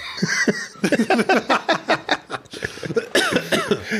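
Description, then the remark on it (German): A loud fit of coughing: a rapid series of harsh, throaty coughs over about four seconds, with brief wheezy gasps in between and no speech. “Ein Huster. Ein Hüsterchen, das ist doch mein Ding.”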